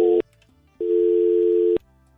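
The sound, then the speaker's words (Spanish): A telephone line tone after a dropped call: a short electronic beep, a brief pause, then a steady, loud, nearly one-second hum, with no voices. “pensé que se le había mm, cortado”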